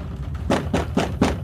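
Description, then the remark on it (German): Four evenly spaced knocks on the closed door of a reading room, each a short, dull rap with a hollow low thud, landing in a steady rhythm over about a second with no voices. “Du klopfst und kriegst ein Herein.”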